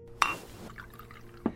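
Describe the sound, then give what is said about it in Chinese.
A glass clinks sharply, then sparkling water trickles and fizzes softly as it is poured into the glass for under a second, before a second bright clink. The sounds are quiet, with no talking. “我把酒夺过来，然后给他倒了一杯气泡水。”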